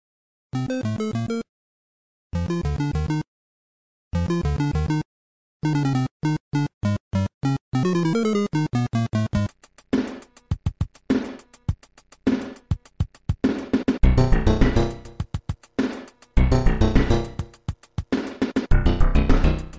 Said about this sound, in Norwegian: annet tema fra Super Mario Bros. 1, og det er kanskje favorittemaet mitt